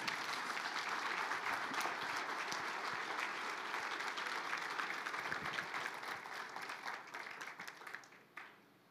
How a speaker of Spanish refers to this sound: Pues dale un fuerte aplauso al Señor en esta hora.